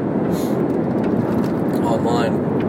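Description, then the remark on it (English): A steady, dense roar of road and engine noise from inside a car cruising on a highway in very light traffic, continuous and fairly loud throughout with no clear breaks. “But yeah, here I'm on the heat, the highway, freeway, whatever you want to call it.”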